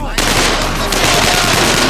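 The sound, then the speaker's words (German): A loud, sustained burst of automatic gunfire from soldiers' weapons, rapid shots blending into a dense, continuous rattle that starts abruptly and keeps going without a break. “Clowns zuckten unter den Einschlägen, aber gingen nicht zu Boden.”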